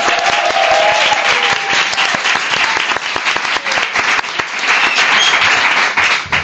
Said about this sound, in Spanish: Un aplauso también para mi compañero Carlos Langa.